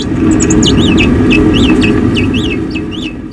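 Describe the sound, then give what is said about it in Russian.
Two naked mole-rats chirp back and forth in quick, high-pitched squeaks, a busy overlapping chatter of short calls over a steady low rumble, fairly loud throughout. “А вот второй звук – это был звук какой-то просто беседы.”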